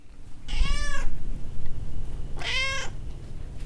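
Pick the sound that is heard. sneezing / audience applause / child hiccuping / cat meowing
cat meowing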